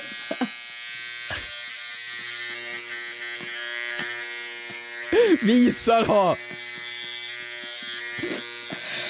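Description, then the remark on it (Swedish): A small battery-powered electric trimmer cutting nose hair buzzes steadily throughout with a high motorized whine, while a person exclaims and talks loudly over it around the middle. “Aj, Om man hör näshåren!”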